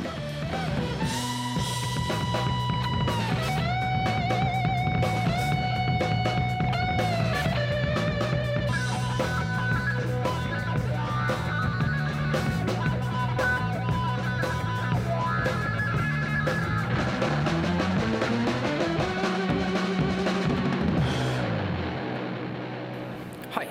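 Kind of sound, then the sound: played music track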